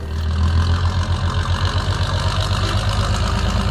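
A heavy truck engine idles steadily, a low rumbling throb with a constant rhythmic chug that holds at the same loudness throughout, with no voices; one of two cargo trucks carrying an advance detachment leaving for Brasília.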